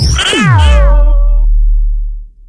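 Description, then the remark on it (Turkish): A baby's sleepy fussing cry: one drawn-out, high, wavering whimper that bends in pitch, loud at first and then trailing off into quiet. No one speaks. “Bebeğinizden böyle sesler geliyorsa biliniz ki bebeğinizin uykusu gelmiştir.”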